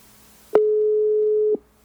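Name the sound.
phone ringback tone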